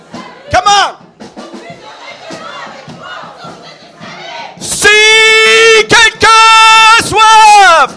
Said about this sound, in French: OK, à trois, tu vas jouer, puis eux, ils, ils, ils, vont dire le verset, OK? Un, deux, trois, vas-y, mon ami. Allez-y. Ah, oh, plus fort, plus fort, plus fort.